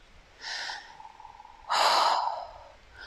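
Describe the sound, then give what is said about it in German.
An airy breath drawn in through the nose, preceded by a shorter, softer intake, the second one fuller and longer before fading out. No one speaks. “Bleibt stehen, atmet ein”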